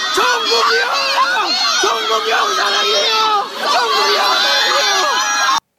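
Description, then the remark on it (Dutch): A crowd of fans screams hysterically at their favourite boyband, a dense, high-pitched wall of overlapping shrieks and squeals that stays loud and continuous, dipping only briefly midway before surging again. “Dit is dan ook een normale reactie als fans geconfronteerd worden met hun favoriete boyband.”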